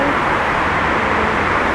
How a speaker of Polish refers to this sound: ogromem spalin od samochodów. No ale przede wszystkim to, co się rzuca tak w ucho, to hałas, który jest tak potężny